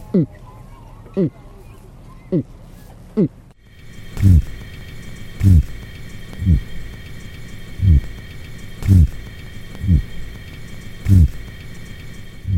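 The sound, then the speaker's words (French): A voice imitates a lobster's low-frequency buzzing in short, regular pulses, about one per second. The first few are softer, then the rest come louder over a faint steady hum. “Et ça produit un son basse fréquence type bourdonnement.”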